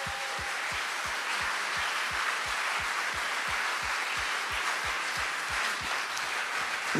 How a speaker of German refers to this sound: Und lass uns mal einfach allen Gästen, allen neuen Leuten, egal ob live oder hier im Saal, Applaus geben. Come on.